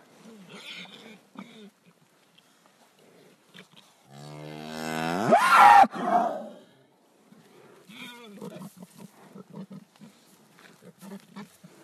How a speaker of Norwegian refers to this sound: På Iungdalen eh, turisthytte har de sett det. En av kuene der har stadig vekk griser etter seg som suger til seg melk rett fra juret.